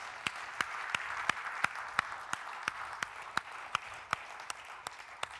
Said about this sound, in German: Und äh, deshalb äh, dienen sie uns auch im Kaffeedienst und wir geben auch dem Kaffeeteam äh, einen kräftigen Applaus